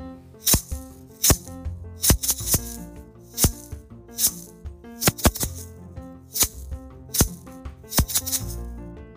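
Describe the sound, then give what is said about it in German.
A small rattle shakes out a rhythmic pattern for listeners at home to clap back, sharp, crisp bursts, some single and some in quick pairs, repeating steadily over several seconds with no talking. “Und ich rassel euch jetzt einen Rhythmus vor und ihr versucht zu Hause diesen Rhythmus zu klatschen.”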